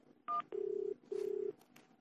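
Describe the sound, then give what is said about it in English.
A short, bright telephone keypad dialing beep, followed by two longer, lower buzzing tones separated by a brief pause, heard clearly with no talking, as someone phones a Chinese restaurant. “Now I call that Chinese restaurant back.”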